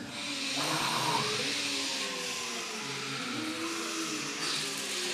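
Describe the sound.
A crowd of people imitates the wind from heaven of the Pentecost story with their voices, making a loud, steady whooshing hiss mixed with low hummed tones that holds for about five seconds.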